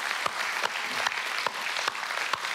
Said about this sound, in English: So it's been a good year, and I think it'd be just good to take a moment and just thank God for His goodness. Can we do that? Just give the Lord a clap offering.